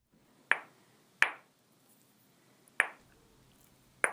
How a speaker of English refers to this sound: The art of banging two rocks together, or knapping, takes more skill than you'd think.